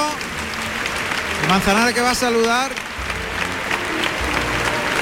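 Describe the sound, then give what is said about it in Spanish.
A large bullring crowd applauds in a sustained, dense ovation for the bullfighter José María Manzanares, filling the whole stretch, while a man speaks over the clapping for a few seconds in the middle. “Ovación del público.”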